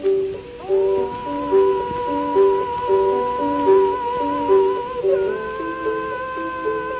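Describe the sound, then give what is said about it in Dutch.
A 1904 gramophone recording, one of the earliest ever made, of a castrato singing, the only castrato voice preserved on record: high, sustained notes gliding from pitch to pitch, with a steady hiss and crackle of old record surface noise throughout. “Want wat je hoort is de enige kastraatstem waar we een audiospoor van hebben bewaard gekregen.”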